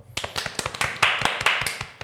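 A few people give thin, half-hearted applause: scattered hand claps in an uneven rhythm for about two seconds, with no voices over them.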